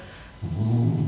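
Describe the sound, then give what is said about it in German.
A dog lets out a low, rumbling grunt, fairly loud, starting abruptly and holding steady for well under a second with no talking over it. “Oh, wow, da macht er ein Geräusch. Das war keiner von uns, das war der Hund.”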